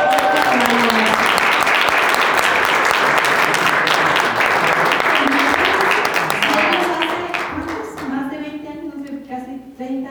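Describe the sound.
An audience breaks into loud, sustained applause, a dense wash of clapping that holds steady for several seconds before thinning out as a voice begins talking over the fading claps.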